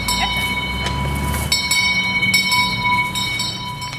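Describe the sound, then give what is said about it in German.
A train rumbles past a level crossing with an electronically controlled barrier that lowers, with steady low-pitched rolling noise and a constant high warning tone, with brief metallic clanks from the wheels. No one speaks. “Jetzt wird das alles elektronisch gesteuert und die Schranke geht dann runter.”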